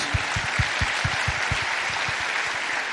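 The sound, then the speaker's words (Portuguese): An audience bursts into steady applause for Jesus, a dense, loud wash of clapping with rhythmic thumps pulsing through it, sustained evenly for the whole few seconds without any talking. “Pode aplaudir Jesus.”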